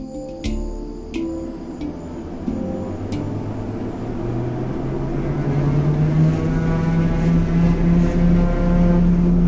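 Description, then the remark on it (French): An airplane engine drones loudly and continuously, its deep hum climbing steadily in pitch as it gains power, with a few sharp clicks near the start and no voices; a plane flying to the village of Saül, which no road or river reaches. “Et comme aucune route, aucun fleuve ne mène à Saül, il faut prendre l'avion.”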